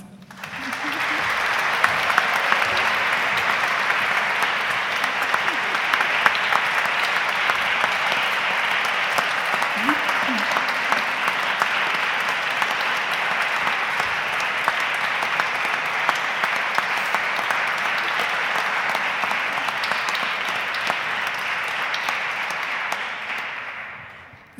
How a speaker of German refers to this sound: Und ich bitte die Gemeinde einmal um einen Applaus.